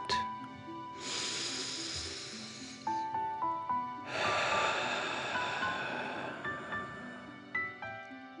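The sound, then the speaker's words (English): Two long, forceful exhaled breaths from a deep-breathing exercise push out with a loud, rushing hiss, like breathing fire, separated by a short pause, over soft, gentle background music. “Remember to breathe in through your nose, filling up your chest and belly, and then out, pretending you are breathing fire.”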